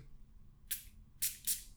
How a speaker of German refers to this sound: Hier würde ich sagen, sprühe ich nur zweimal, denn gerade eben, das war mir ein bisschen zu viel.